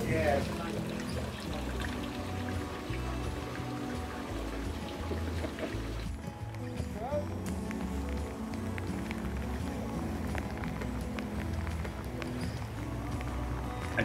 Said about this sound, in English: It poured with rain. Absolutely dumped on us. Rainy days in Florida.